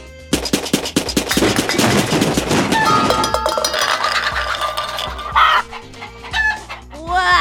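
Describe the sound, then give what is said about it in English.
Loud chickens going after marshmallows, clucking in a rapid, clattering burst that thins out into scattered individual clucks and higher squawks, with no one talking. “Wow, this chicken's gonna eat marshmallows fast.”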